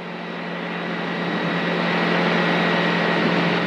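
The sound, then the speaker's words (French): A small airplane engine roars steadily at full throttle during takeoff into a headwind at an airfield in Chamblay, a loud, continuous drone with a steady tonal hum that builds slightly in loudness over a few seconds. “Alors là, ça fait du bruit, c'est normal, c'est le moteur qui est à fond.”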